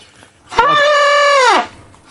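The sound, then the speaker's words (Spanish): A person imitates an elephant trumpeting: one loud, brassy blast lasting about a second. It starts abruptly, holds steady, then bends downward as it fades, with no talking over it. “Enseña a la gente cómo se hace el elefante.”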